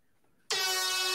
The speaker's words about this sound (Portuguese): Não é mais a troca do blues, é a corneta. corneta é a corneta do blues agora.